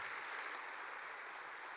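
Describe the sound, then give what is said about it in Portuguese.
A crowd applauds the Lord steadily, many hands clapping at once in a dense, even wash of sound that holds without pause or change in intensity for the whole stretch. “Se você crê nisso, dá uma salva de palmas ao Senhor.”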